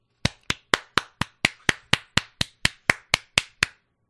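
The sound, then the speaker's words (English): One person claps their hands about fifteen times in a quick, steady rhythm, each clap sharp and crisp with a short ring-off. No voices are heard. “Hold on. I got to clap. Ready? Ready, ladies and gentlemen? This is me clapping.”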